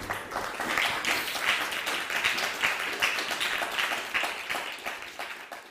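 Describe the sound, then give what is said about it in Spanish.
A crowd applauds steadily for the Blessed One at the end of a talk, many hands clapping in a dense, continuous patter at moderate volume, tapering off slightly toward the end. “un fuerte aplauso al bendito sea, por favor.”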